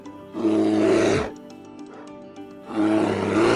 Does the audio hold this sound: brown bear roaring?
yes